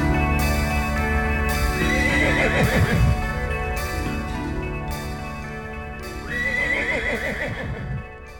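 A horse neighs loudly, two long quavering whinnies a few seconds apart, with a steady clip-clop of hooves running underneath throughout.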